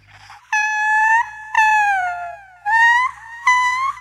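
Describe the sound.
A voice imitates a high-pitched, screeching wail, done to beckon husks, in four long, sustained cries separated by short pauses. The cries are loud, some sliding downward in pitch, with no speech.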